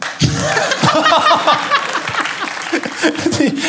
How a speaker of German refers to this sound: Ja. Applaus für Kräumann.